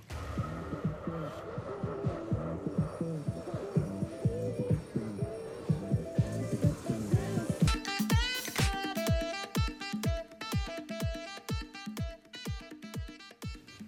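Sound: reggae song playing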